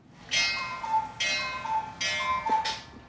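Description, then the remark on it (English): A cuckoo clock in a house sounds off, repeating its call about four times in a steady rhythm, each note opening with a bright chime-like burst. It is clear, with no talking. “Is that a cuckoo clock?”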